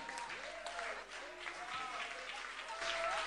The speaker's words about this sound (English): Another big round of applause for the Little Giants.